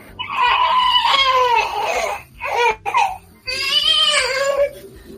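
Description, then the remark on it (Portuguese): A baby wails in long, strained bursts, two extended cries broken by a brief hiccuping sob in between, loud with no other voices. “Dá leite pra essa criança, dá peito.”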